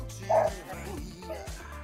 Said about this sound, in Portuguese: Nossa senhora, meus cachorros